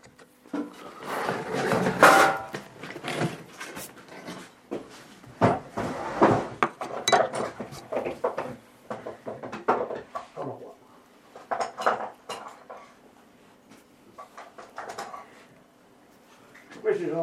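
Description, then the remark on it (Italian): Handmade steel router cutters, made from truck and car leaf springs and mounted on a vertical spindle moulder used to cut wood mouldings, clink and clatter as they are handled. A string of sharp, irregular metallic knocks and rattles is busiest early on and thins out, with some talking mixed in. “Questi sono ferri di, da, ricavati dalla balestra, fatti da me.”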